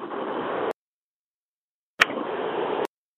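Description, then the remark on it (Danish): Steady, muffled engine and road rumble of a car being driven comes through a narrow phone-like line, cuts out completely for over a second, then resumes with a brief click. No one speaks. “Jeg tror, du kører bil.”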